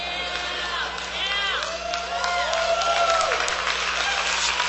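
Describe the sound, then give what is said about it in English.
An audience, with a cheering section in the front row, cheers and applauds a preacher, with scattered clapping under high whoops and shouts from several voices, holding steady and growing a little louder over about five seconds. “I have my cheering section on the front row here”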